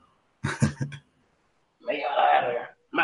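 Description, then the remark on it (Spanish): A person coughs and clears their throat: a quick cluster of rough bursts, a pause, then a longer raspy throat-clearing, with another cough starting at the very end. “Voy a toser nuevamente.”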